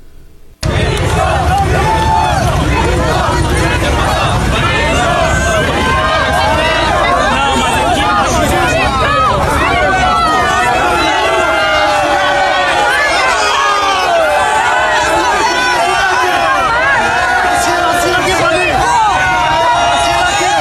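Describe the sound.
A dense crowd clamors loudly and continuously as President Bolsonaro arrives at the 55th Mercosur heads-of-state summit, people wanting to approach, greet and photograph him; many voices overlap in excited shouts and cheers, sustained for the whole stretch after an abrupt start.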